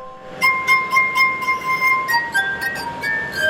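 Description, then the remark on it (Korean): Sustained, ringing glass tones played as a melody on a glass harp made of drinking glasses, with pure sine-like pitches shifting every fraction of a second and light percussive clinks at each new note. “유리잔으로 클래식 음악은 물론 영화 음악, 재즈까지 다양한 곡을 연주하는데요.”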